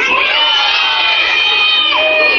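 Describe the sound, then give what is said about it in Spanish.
A crowd of children from the Concepción Guadalupe neighbourhood cheers and shouts loudly at a year-end holiday event, a sustained high-pitched roar of many voices with a few whoops rising above, filling the space without a break. “¿Dónde están los niños de la colonia Concepción Guadalupe? No los escucho, a ver, ¿dónde están?”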